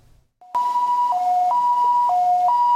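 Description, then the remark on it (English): A loud ambulance siren sounds in a steady two-tone wail, switching between high and low pitches about every half second, with no one talking. “An ambulance takes a patient to the hospital as fast as possible”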